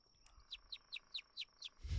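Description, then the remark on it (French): A quick series of bright, descending bird chirps repeats about every quarter second from birds in nearby trees at night, fairly clear over a quiet background, ending with a rush of low noise. “Donc, attirer les oiseaux qui pourraient se nourrir pour l'instant, ça risque d'être très difficile mais t'entends gazouiller”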